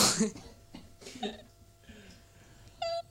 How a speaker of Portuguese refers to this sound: Calma, estamos, estamos aqui a ter um momento em que a minha mãe está a tossir. Ela quer tentar disfarçar, mas não está a conseguir. Não é Por COVID, isso, assume, é. assume. Acho que não é Covid. Ela engasgou-se com saliva.